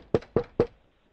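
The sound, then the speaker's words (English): Three heavy knocks on a door in quick, even succession, loud, each with a short hollow thud before the sound stops. “Child Protective Services is pounding on your door”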